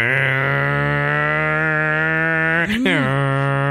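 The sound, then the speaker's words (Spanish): A person hums a steady, buzzing electronic drone, imitating the futuristic sound a sound designer created for BMW electric cars; the tone holds level for several seconds, briefly wavers and bends in pitch, then settles again. “BMW contrató a un, diseñador de sonido para que les hiciera el sonido de los coches de BMW.”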